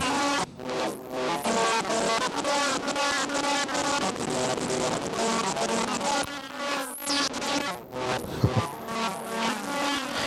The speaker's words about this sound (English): So you can see you can get some uh, you can get some distortion out of it, but I don't know if I would call it just a distortion. It's kind of like the uh, the bad comrade in that it's uh, it's pretty wily.